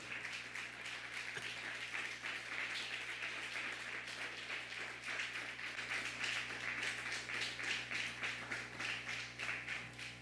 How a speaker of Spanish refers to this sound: Un fuerte aplauso.